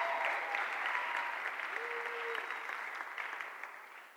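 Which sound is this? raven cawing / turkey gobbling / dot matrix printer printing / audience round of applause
audience round of applause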